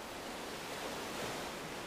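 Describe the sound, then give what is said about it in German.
A steady, hissing rush of ocean surf rolling slowly onto a beach, with a gentle swell as a wave washes in, continuous and fairly soft, with no voices. “Beobachte, die Wellen, wie sie kommen und wieder gehen. Spüre die Kraft des Meeres und die unendliche Weite des Ozeans.”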